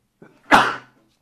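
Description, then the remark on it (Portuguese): A single human sneeze: a brief, soft intake of breath, then one loud, explosive burst that quickly fades. No talking accompanies it. “Peraí, acho que vou espirrar.”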